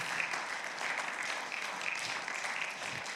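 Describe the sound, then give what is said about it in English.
A large crowd claps steadily and continuously in applause for the Lord, a dense wash of many hands with no pauses, holding a fairly even loudness throughout. “Let's just applaud the Lord. Can we do that? Just applaud him.”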